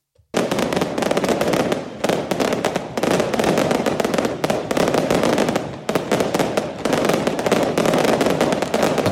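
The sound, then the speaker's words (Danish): Dense, relentless fireworks crackle and bang for about nine seconds without pause, loud, a continuous barrage of rapid-fire firecracker pops layered over a roaring wash of noise, set off at Brøndby Stadion at 2 a.m. as the team bus drives into the square by the stadium. “Men, men øhm, jeg synes lige, vi bare lige skal høre en lille bid af, hvordan det lød, da bussen den kører ind på pladsen med stadion.”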